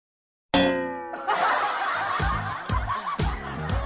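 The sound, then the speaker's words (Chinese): A single deep temple bell strike, standing for the bell of Lingyin Temple, rings out with a rich, humming tone, then is quickly overtaken by rhythmic bursts of snickering laughter that continue to the end. “我仿佛听到了灵隐寺的钟声，我已四大皆空。”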